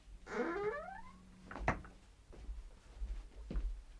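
A door, found unlocked, creaks open with a rising, wavering squeal as people go inside, followed by a solid thump and a couple of quieter knocks, with no one speaking.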